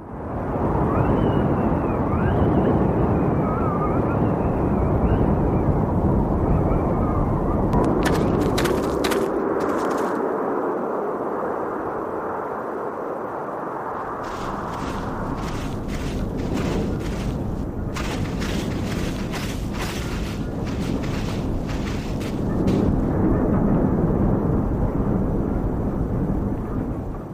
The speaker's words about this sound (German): Und das ist so eine winddurchpfiffene Ebene, da ist also ständig dieses Windheulen zu hören und es variiert aber subtil, je nachdem an welchen Ort man geht. Und das kann man hier sehr schön raushören, denke ich.